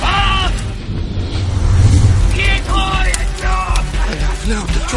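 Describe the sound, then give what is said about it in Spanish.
A man inside a burning cart screams in several harsh, strained bursts, loud, over a continuous low rumbling roar that fills the background throughout. “Pero, para sorpresa de ellos, después que, que, la carreta estaba, estaba ardiendo, sienten gritos.”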